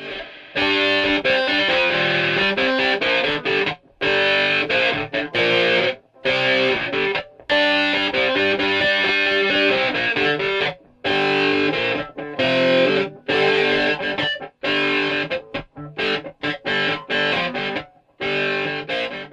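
A distorted electric guitar plays a chugging, bluesy riff on its own, loud and gritty, with choppy stops and restarts between phrases and no voices.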